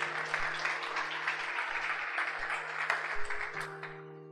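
An audience claps steadily in praise of the Lord in a dense, continuous wash of applause, with a low sustained organ-like hum underneath that shifts pitch near the end as the clapping tapers off.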